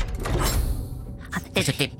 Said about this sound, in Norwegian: Jeg åpner døren og går ut.